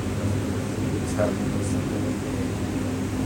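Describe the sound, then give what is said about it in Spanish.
A ventilation fan runs steadily in a room with plants behind glass, its low droning hum and airy rush holding constant for the whole stretch. “Yes y pues y nos dejaron entrar, pues, como pueden ver, queridos amigos, a ver las plantas cerca y a través del vidrio hay mucho juego para el ventilador”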